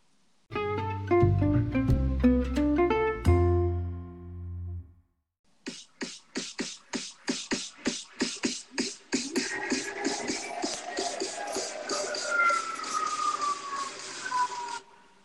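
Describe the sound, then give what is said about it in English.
A short instrumental jingle: a bright run of ringing, chime-like notes gives way to a steady, punchy beat with sweeping, siren-like synth tones gliding over it. No one speaks. “After when we come back, we'll uh, we will listen to the jingle first, though.”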